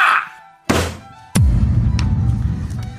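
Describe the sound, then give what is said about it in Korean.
A rubber 'well done' praise stamp is pressed onto the back of a hand with a dull thunk, followed by a second sharper thump that leaves a brief low resonance; no one speaks. “근데 손등에 칭찬 도장이라니.”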